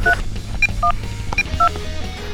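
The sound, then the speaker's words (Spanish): A rapid series of push-button landline telephone keypad tones, about six short dual-pitched beeps in an uneven rhythm, heard clearly over a low background rumble. “También pasamos de, a ver, el teclado, que era un, un disco, de ahí viene discar, pasamos ya al famoso tecladito, eh, con botoneras, con números.”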